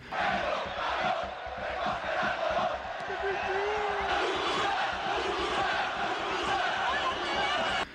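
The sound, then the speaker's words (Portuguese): A huge football stadium crowd of Real Madrid fans in Spain in the 1990s roars continuously, many voices chanting and shouting insults at the opposing goalkeeper in a dense, loud wall of sound that never lets up for the whole stretch. “Nesse caso, a torcida que estava xingando o goleiro adversário era a do Real Madrid, mas cantos e gritos como esses eram comuns em todas as arquibancadas do país.”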